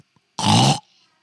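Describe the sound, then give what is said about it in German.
A single loud, rough, belch-like grunt made by a human voice imitating a wild boar, lasting under half a second, alone with a brief faint tail afterward. “bin mir ziemlich sicher, dass irgendjemand, das ist ein scheiß Wildschwein, was sich irgendwo im, im, Gebüsch versteckt hat.”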